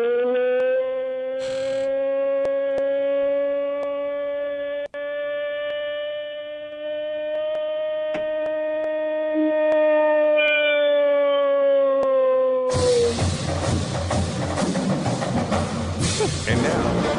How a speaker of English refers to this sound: What does Bigfoot sound like? That goes a little something like this.